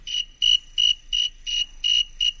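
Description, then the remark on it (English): A snowy tree cricket at a warm temperature chirps in a steady, evenly spaced rhythm, about seven clear, high-pitched trills in a row, distinct against a quiet background with no talking. “Uh, I have a snowy tree cricket, and I'll play a song of a warm one, a hot one, and a cold one.”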